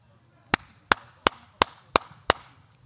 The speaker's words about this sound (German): normalerweise klatscht man so, meine Frau sagt immer, klatsch nicht so laut, ist viel zu laut. Ich klatsche so.